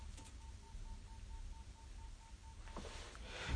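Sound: phone alarm going off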